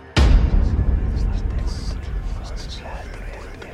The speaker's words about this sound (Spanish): Segundos después, comenzó a escuchar gente murmurando, justo detrás de él.